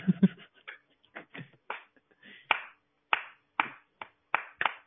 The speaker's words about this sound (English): You see in the audience, one person just gets up and starts to do the cl- slow clap.